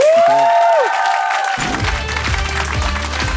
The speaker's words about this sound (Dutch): Eh, ik wil Bart Kannaerts ik heeft al een applaus gekregen, maar ik wil een, een dubbel zo luid applaus voor onze coryfee, onze living legend van Studio Brussel, die nog goed is voor vele jaren, mag ik hopen. Stijn van de Voren!